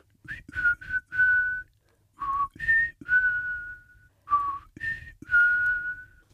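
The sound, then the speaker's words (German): A person whistles their signature call in three similar phrases, each of a few short rising notes ending in a long held tone, clear with pauses between, calling forest birds, squirrels and jays to a construction trailer. “Du hast ein besonderes Erkennungszeichen, nämlich einen Pfiff.”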